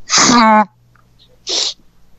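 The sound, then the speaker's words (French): A person imitates a man sneezing into a blue handkerchief with white dots: a drawn-out voiced wind-up bursting into a loud, breathy blast, then a shorter, softer puff of air a second later. “Jean Béliveau s'approche de moi, puis il prend son mouchoir”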